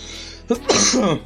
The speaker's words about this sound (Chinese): 我这个嗓子大家也听见是吧？要咳嗽，而且一直不好。